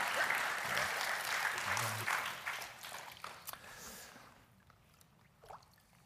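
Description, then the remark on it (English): An audience breaks into loud, steady applause for two people just baptized, a dense wash of many hands clapping that holds for about four seconds before tapering off into a few scattered claps and quiet. “Let's give both of them one more round of applause for here today.”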